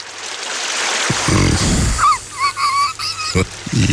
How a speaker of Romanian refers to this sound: Și uh, îi ajutăm cu aceste sunete relaxante de apă care curge. Ca o apă curgătoare. Ca o apă cristalină.